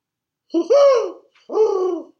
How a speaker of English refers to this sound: I mean, owl. that owl's getting talented. Some fanfare owl.